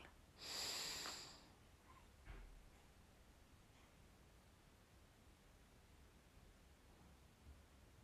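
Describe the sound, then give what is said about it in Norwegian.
A single long, deep breath taken during a guided breathing exercise, airy, rises and fades within about a second, followed by near silence with a faint soft tap and low hiss. “Og vi puster en gang til.”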